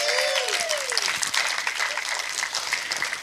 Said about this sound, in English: Let's give Pastor Don a hand clap.